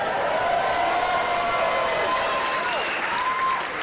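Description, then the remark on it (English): Steady, dense audience applause fills the whole stretch at an even level, with a few rising and falling whistles or cheers sliding over the clapping; nobody speaks. “Um, and we applaud the Chicago people for doing that.”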